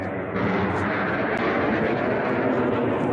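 A loud, steady roar of an airplane flying overhead, a dense continuous engine rush that swells in after a brief quieter start and holds for the whole stretch, with no voices.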